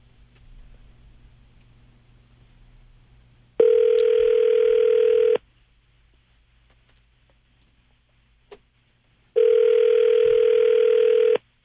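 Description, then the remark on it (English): Two loud, steady telephone tones on an outgoing call, each lasting about two seconds, separated by a few seconds of faint line hiss, with no talking. “I think this we're making it. a phone call here, but.”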